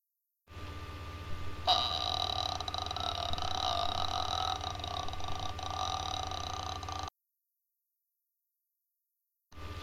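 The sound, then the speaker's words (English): A voice does an impression of the Predator movie alien, a long, guttural, rattling growl lasting about six seconds, loud, then cuts off abruptly into silence. “Can I do my impression of um, Michael Jackson. No, uh, thingy, what's it called? Of the Predator.”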